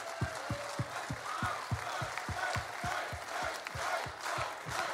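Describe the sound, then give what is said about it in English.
A large crowd at a rally cheers and applauds Governor Mike Huckabee continuously, a dense roar of noise with a steady, rhythmic low thumping beneath it, sustained at a fairly even loudness throughout. “Please stand up. You deserve all the applause.”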